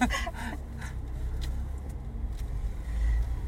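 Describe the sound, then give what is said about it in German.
Steady low engine rumble from a car creeping slowly through a narrow residential street, with a few soft clicks and rattles from the cabin and no voices. “Ja, was wir denn hier machen, warum wir denn hier so durchschleichen mit ich, dem Auto.”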